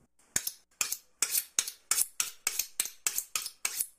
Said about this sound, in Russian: зеленый лук, две стрелки, их надо будет нарубить.